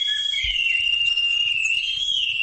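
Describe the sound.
A high, thin whistle blown through a pipe to converse with birds, held as one steady tone with a slight waver for the whole stretch, with no voices and only faint low rumbles underneath.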